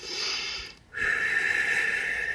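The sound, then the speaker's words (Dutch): Air blown out through pursed lips in two steady, hissing breaths, separated by a brief pause. The second, longer breath carries a faint whistling tone. No one speaks. “maar dan, dan tuit je je lippen en eh, de, de, de spieren in je ehm, mondgebied en je lippen zijn eigenlijk van hetzelfde weefsel als je kringspieren.”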